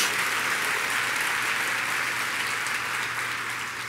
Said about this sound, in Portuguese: pode ser mais alto suas palmas. Glória a Deus.